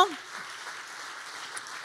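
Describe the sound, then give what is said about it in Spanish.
An audience applauds in a steady, dense wash of clapping that holds at an even level for a couple of seconds, with no clear speech. “Si usted le va a dar un aplauso”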